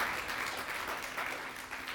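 A church audience claps their hands together to give God a hand clap, a steady, dense wash of applause, many overlapping claps at moderate volume filling the room without any voices.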